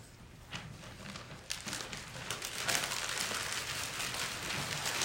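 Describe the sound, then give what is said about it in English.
People in a room crumple their pieces of paper into balls, a dense crackling rustle that starts sparse, swells after about a second and a half, and keeps crinkling steadily with no voices. “Now, I want you to take your piece of paper and I want you to, to crumple it up, put it in a ball.”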